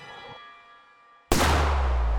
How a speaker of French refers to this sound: Premier coup de feu. Guy Jacob vacille.